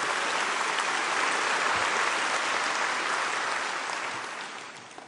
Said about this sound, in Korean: 할렐루야 우리 하나님께 큰 박수 올려드립니다